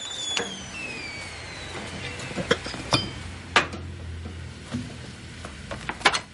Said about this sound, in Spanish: En la cocina apaga el fuego y retira la tapa del pico de la pava.